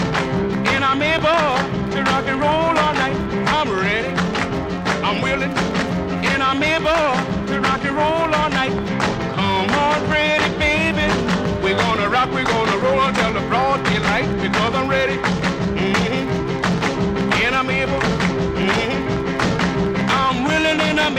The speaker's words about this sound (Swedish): Vi har, vi har, spelat två och en halv låt kan vi säga och nålen har inte hoppat en enda gång. Och då är de här skivorna ändå uppgrävda. De har legat i decennier utomhus.